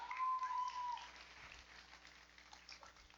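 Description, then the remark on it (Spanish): Steady, soft applause from a large audience at night, given for Jesus Christ, a dense patter of many hands clapping throughout, with a brief thin tone sounding over it near the start. “¿Por qué no le das el mejor aplauso a Jesucristo en esta noche?”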